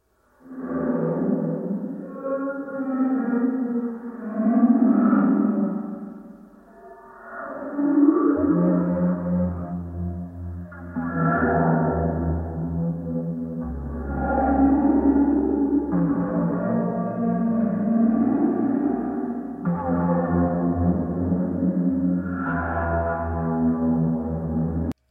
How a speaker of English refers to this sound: it seems to me almost like they recorded whales and then I was going to say that slowed them